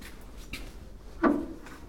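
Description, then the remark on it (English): A glasshouse door separating sections, leading to the tropical orchids, opens and shuts with a single short scraping clunk, moderately loud, against a quiet, steady hum with no talking. “All sections are separated by doors, and it's a sign on every door help us regulate the temperature in the glass house and please leave this door closed. So that's what I did.”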